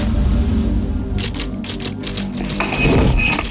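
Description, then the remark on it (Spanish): Typewriter typing: a quick, uneven run of sharp mechanical key strikes, fairly loud, ending in a heavier clattering burst over a low background rumble. “Por eso siempre he preferido el papel y la máquina de escribir.”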